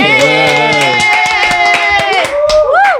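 Hands clap in a quick, steady rhythm, loud, in applause for a producer, over sustained voices or tones that rise and fall, the clapping fading out near the end.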